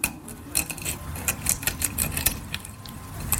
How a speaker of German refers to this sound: Also erstmal ein schönes, großes Frühstücksei kochen. Aufschneiden.